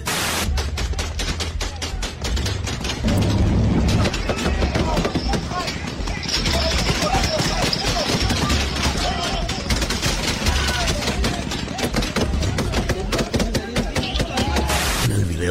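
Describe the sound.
Sustained, loud gunfire: rapid bursts of sharp cracks fire continuously and irregularly for about fifteen seconds, like an automatic-weapon exchange, with faint voices underneath, during an armed clash between the Sinaloa and Jalisco Nueva Generación cartels in Zacatecas state, Mexico.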